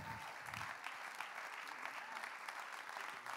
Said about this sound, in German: zu begrüßen mit einem riesigen K21 Applaus. Lass uns mal aufstehen, Church.